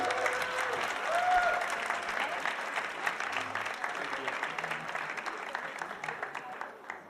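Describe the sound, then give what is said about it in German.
Sustained audience applause for a man in an orange shirt called up from the audience, a dense crackle of many hands clapping for about seven seconds at steady strength, easing slightly toward the end, with faint voices mixed in. “Großen Applaus.”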